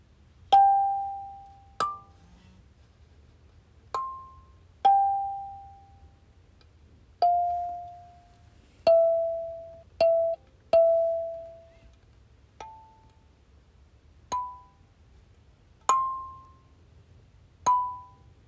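A kalimba plucked slowly during practice, one tine at a time, picking out a halting melody of about a dozen bell-like notes that ring and fade, with pauses between them and no talking.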